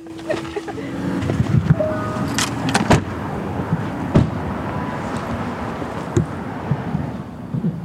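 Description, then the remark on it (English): People climb out of a car stopped beneath a tow-away, no-stopping sign: a few sharp door clunks and thumps, a brief jingle of keys, and shuffling movement over a steady low rumble of traffic and wind. “So I don't know if that's us, but we probably ought to get out the car before it gets towed.”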